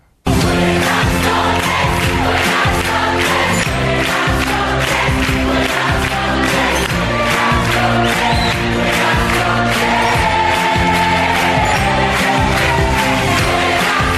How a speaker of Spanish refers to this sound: Una gala en la que todos los chicos acabaron cantando su himno que suena así.